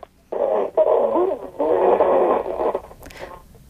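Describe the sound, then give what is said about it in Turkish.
Muffled, band-limited audio of a caller's radio comes through a phone line, a thin voice with a bit of music underneath, cutting in and out in a few bursts before a brief click and silence. “Radyonuzun sesini kısabilir misiniz lütfen yayındasınız.”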